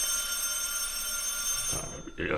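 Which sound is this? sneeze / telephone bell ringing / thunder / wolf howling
telephone bell ringing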